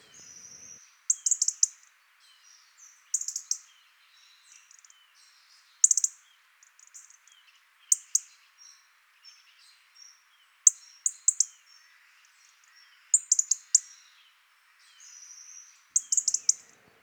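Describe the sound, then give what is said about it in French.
A European robin gives its sharp, clicking territorial tick call in short bursts every couple of seconds, clear, with faint thin high notes between them and no other sounds. “Petit cri cliqueté de territoire mis souvent le soir avant la nuit ou très tôt le matin.”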